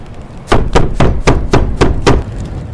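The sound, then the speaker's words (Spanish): Heavy blows pound a wooden door, forcing it off its hinges; about seven loud thuds landing in a fast, steady rhythm before stopping. No voices. “Un golpe violento. La puerta fue empujada con tal fuerza que se salió de los goznes y, con un golpe sordo, cayó al suelo.”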